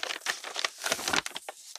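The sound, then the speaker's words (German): Crisp rustling and crinkling of paper as a chosen item with a paper inside is opened, a dense run of small crackles lasting a couple of seconds with no one talking. “Ich mache jetzt mal auf.”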